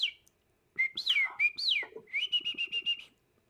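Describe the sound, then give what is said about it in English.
A person whistles a birdlike tune: a few swooping, warbling notes followed by a rapid run of short repeated chirps, clear and fairly loud with no talking. “I can, um, uh, I can whistle like a bird.”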